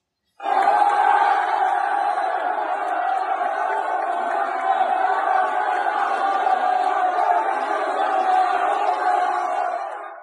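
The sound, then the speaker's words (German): A large crowd cheers and shouts continuously, a dense, loud roar of many voices that starts abruptly and holds steady for about ten seconds with no individual speech standing out, as fans in Paris celebrate the arrival of Ramos at Paris Saint-Germain. “Da sieht man ihn also im Hintergrund, großer Jubel bei den äh, Franzosen in Paris, in großer Vorfreude.”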